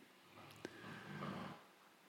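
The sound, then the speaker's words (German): A dog snores softly and contentedly in the background: one drawn-out, rumbling breath with a brief snort at its start, otherwise quiet. “Während mein Hund im Hintergrund zufrieden schnarcht,”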